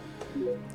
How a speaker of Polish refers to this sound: dźwięk odgrywany w momencie, kiedy możemy już wejść z jakimś przedmiotem w interakcję i możemy wcisnąć Enter. Czyli to jest dźwięk, który nam jakby pokazuje, gdzie dany przedmiot się znajduje i możemy po prostu się poruszać względem tego dźwięku,